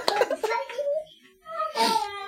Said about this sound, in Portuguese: é a criança passando atrás aqui falando. Ah, ah, ah. Essa é minha filha? Ela tá animada pelo prêmio randômico. Ela parou pra olhar a gente.